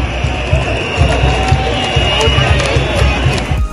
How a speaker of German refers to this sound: Doch Söder lässt die Buhrufe nicht auf sich sitzen und keilt gegen die wütende Menge von der Bühne herab. Die rufen, hau ab!